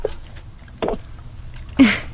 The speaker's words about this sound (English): I am opening a box. Can you believe it?